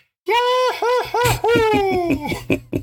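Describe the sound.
A voice imitates Mickey Mouse yelling, a string of bouncing high-pitched whoops ending in a long falling squeal, loud, with laughter breaking in at the end.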